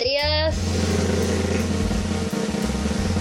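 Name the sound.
drum roll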